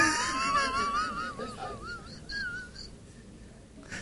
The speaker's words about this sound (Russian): Нет, просто он у бабушки неделю пожил. Попугай.